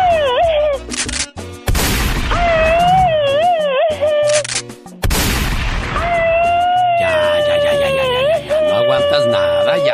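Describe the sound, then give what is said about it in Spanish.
A woman screams loudly in long, high, wavering wails, broken by a few harsh noisy bursts, the shrieking continuing almost without pause, piercing. “Esta es la chica sexy. Oh my Porque muy gritoncita, ¿eh?”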